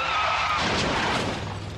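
A car crash with skidding and shattering glass: a brief tire squeal cuts into a loud, noisy burst of impact and breaking debris, dense, with no one talking.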